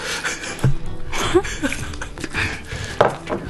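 Close-up chewing with a run of moist, crunchy bites and smacks in an uneven rhythm, fairly loud and near, with soft breathing and no talking.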